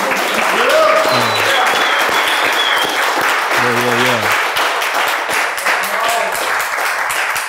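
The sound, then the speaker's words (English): Steady, dense applause from an audience fills the whole stretch, loud and continuous, with a man's voice calling out briefly over the clapping. “Y'all clap for this nigga one more time, man.”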